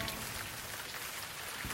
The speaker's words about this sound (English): Let the rain make a sound.